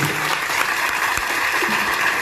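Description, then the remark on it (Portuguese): A crowd claps steadily for the Papai Noel and Mamãe Noel (Santa and Mrs. Claus) of Brazilian dance, a dense, even wash of many hands applauding at a fairly loud level, with faint voices mixed underneath. “O Papai, palmas.”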